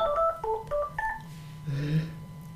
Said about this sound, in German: Oh, da klingelt das Telefon. Ähm, warte.